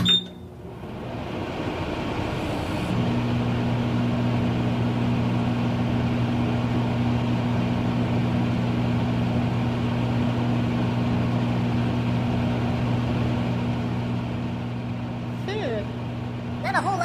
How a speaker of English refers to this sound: it's a microwave!